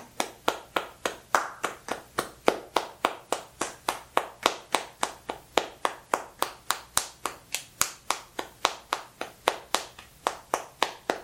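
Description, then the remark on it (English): A single person claps steadily and evenly, around three sharp, crisp hand claps per second, filling a long pause while a new question is thought up, with no talking underneath. “I like the really long clap pauses while you're trying to come up with a new question.”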